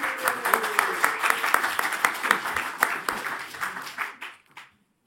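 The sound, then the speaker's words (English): A crowd applauds steadily for about four seconds at a Battle of Ideas debate event, welcoming two speakers, dense overlapping claps from many people, then the clapping thins out and fades to silence. “A quick round of applause for them.”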